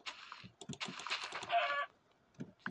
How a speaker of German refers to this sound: Na, Digga, hier ist ein ja, ein Huhn. Doppelhuhn.